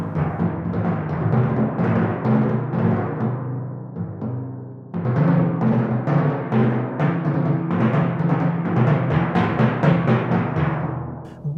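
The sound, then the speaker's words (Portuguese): Energetic orchestral timpani drumming with steady, forceful strikes over full orchestra, loud, easing briefly before building again into a dense, rhythmic passage. “Abrimos este programa com o enérgico som do tímpano na Grande Sinfonia número 7 do compositor tcheco Gustav Mahler”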